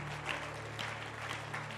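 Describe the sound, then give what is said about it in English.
An audience claps together as a clap offering to God, a steady, dense wash of applause that holds level throughout, with a low sustained hum running beneath it. “Somebody get excited and give God a clap offering.”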